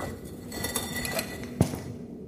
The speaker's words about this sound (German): wobei du die Flasche aus Reflex von dir wegschleuderst und sie klirrend an der Wand zerplatzt.